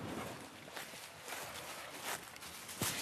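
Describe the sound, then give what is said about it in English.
Footsteps crunch steadily along an outdoor walking path past big banyan trees in the small village of Ulandon, heading toward the beach, with a broad rustling texture and a few sharper scuffs, moving at an unhurried walking pace. “Do you think about that sometimes when you're walking through here?”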